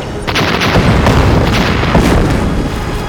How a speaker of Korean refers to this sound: 땅 속에 묻었던 폭약이 크게 폭발하자 성 밖에서 흙과 돌이 우르르 공중으로 날아올랐다가 흩어졌습니다.